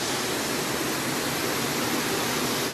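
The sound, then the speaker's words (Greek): A dense, steady roar of rushing floodwater on the Greek island of Skiathos in the Sporades, like a flooded street torrent, fills the whole stretch at constant loudness with no voices and no breaks. “Η σκιάθο πνίγηκε. Οι εικόνε από το νησί των Σποράδων είναι συγκλονιστικέ. Όλα έχουν καλυφθεί από νερό.”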